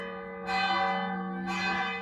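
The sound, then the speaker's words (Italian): Church bells, heard just outside the church, ring out with two broad strikes about a second apart, their rich harmonic tones sustaining and overlapping, with no voices. “Sì, sono uscita dalla chiesa e le campane hanno iniziato a suonare.”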